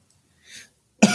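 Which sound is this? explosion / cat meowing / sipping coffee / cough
cough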